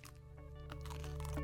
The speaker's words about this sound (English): Mmm. Great cornflake crunch. No, the cornflakes stayed crunchy.